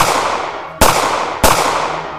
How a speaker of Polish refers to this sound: Żołnierz nagle usłyszał okrzyk stój oraz kilka szybkich strzałów.